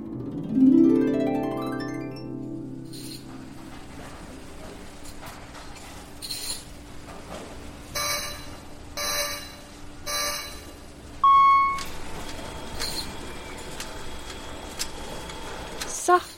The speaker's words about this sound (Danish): går arbejdsdagen i gang her på sodavandsfabrikken.